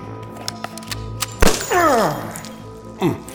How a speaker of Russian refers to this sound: в ту же секунду выхватила пистолет и выстрелила красному в ногу